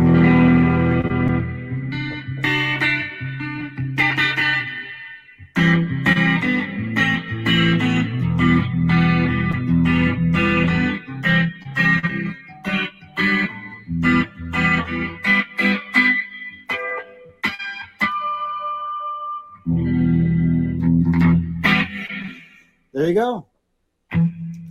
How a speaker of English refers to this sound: So this video has nothing to do with playing guitar. Well, I mean, as far as my playing, just want to show you guys that I am using the uh, the unit Lekato guitar wireless system, and it sounds great.